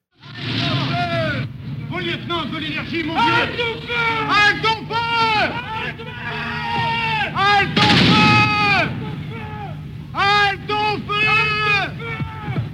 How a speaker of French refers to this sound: Écoutez bien les cris des passants qui sont juste à côté, qui assistent à ce massacre et qui demandent aux soldats français d'arrêter de tirer.